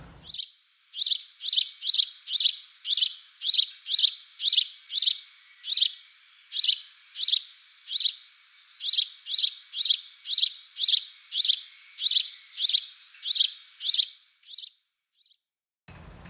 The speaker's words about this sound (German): Grünspecht, Haussperling,